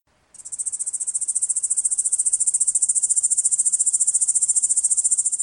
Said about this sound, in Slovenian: No, aha, potem pa sem še najdel eno drugo pogosto, dolgo tipalčnico pri nas, travniška zelenka, ki se pa recimo oglaša tak.